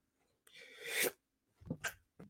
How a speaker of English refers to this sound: Ooh, got to sneeze.